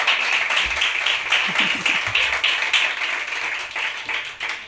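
A crowd applauds a band's guitarist steadily, dense overlapping claps forming a continuous bright patter that stays fairly loud throughout, with a few faint voices murmuring underneath.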